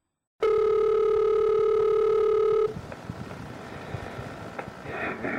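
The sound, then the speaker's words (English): A single loud, steady electronic telephone ring tone sounds for about two seconds at the start of a recorded phone call from a police case file, then cuts off into faint line hiss with a few soft clicks. “This is a phone call”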